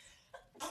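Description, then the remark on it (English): A single quick sneeze: a brief catch of breath followed by a sharp, breathy burst, fairly faint, with no talking around it. “Oh, bless you.”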